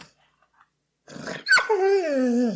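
A dog growls, a low rumbling sound that rises into a whiny, drawn-out vocal grumble lasting a couple of seconds after a brief quiet start.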